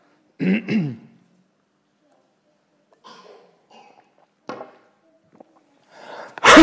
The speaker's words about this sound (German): ja, wenn ich jetzt nicht das Ding auf hätte, dann hätte ich jetzt nicht in, in das Ding gehustet.